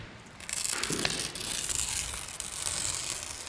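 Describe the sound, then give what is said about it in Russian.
A piece of wallpaper being ripped off a wall inside an empty, damp house: a dry, crackling paper tear that starts with a sharp burst and rasps on steadily for about three seconds, with no voices. “Содрал со стены кусок обоев.”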